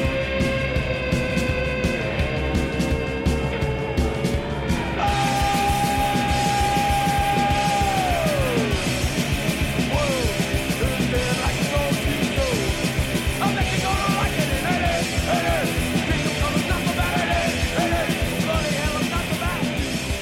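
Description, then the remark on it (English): A loud, dense punk rock song with distorted guitars and pounding drums, and shouted vocals cutting through the wall of noise. It plays continuously for the whole stretch. “So the first one is the titular track”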